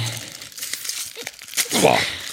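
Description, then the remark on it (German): Crinkly plastic wrapper of a fortune cookie being torn and crumpled open, a few sharp rips amid steady rustling, with a brief burst of louder crackling near the end. “Glückskeks statt Euten. Whatever. So, ich mache jetzt auf.”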